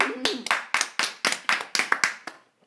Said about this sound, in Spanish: Un aplauso.